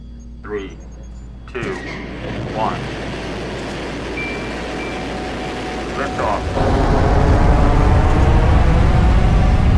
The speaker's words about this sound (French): Le réacteur démarre dans un gigantesque nuage de flammes et de fumée. Le vacarme est assourdissant, comme un coup de tonnerre en plein jour. L'appareil s'élève à la verticale pendant quelques secondes.